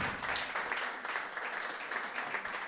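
An audience applauds, a dense, steady wash of many hands clapping that holds at an even level throughout, with no voices standing out.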